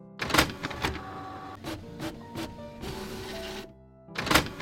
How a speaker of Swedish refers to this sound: Jag skriver ut faktan till er här.